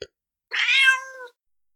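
A single cat meow, fairly loud, rising then trailing off with a bright, nasal tone. Brief silence surrounds it and no one speaks.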